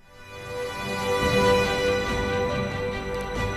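A short, epic orchestral string jingle swells in with full, sustained chords and a rich low end, staying loud and dramatic throughout with no voices.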